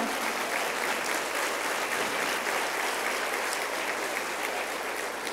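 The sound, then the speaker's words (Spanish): Sustained applause from an audience giving a hand to the Lord in thanks, a dense, even wash of many hands clapping that holds steady at a fairly loud level for several seconds with no speech over it. “Dale un aplauso al Señor en agradecimiento.”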